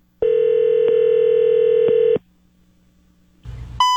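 A steady telephone tone hums for about two seconds, then after a brief pause and a short burst of line noise, sharp dialing beeps begin as a prank call is placed on Rock 107 radio to Autoglass. No voices.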